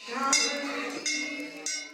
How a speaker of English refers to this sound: Bells rang at a Hindu temple in the Bay Area during one of several vigils following the December gang rape in India.